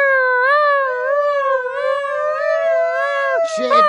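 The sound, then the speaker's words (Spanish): A single voice imitates a police siren, holding a long, loud wailing tone that rises and falls gently, lasting several seconds before breaking off into a short lower sound. “en eso llega la policía y empieza a sonar la sirena.”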